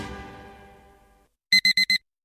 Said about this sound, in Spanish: Pasarse al Seat León híbrido con Seat Flex es tan fácil como posponer la alarma.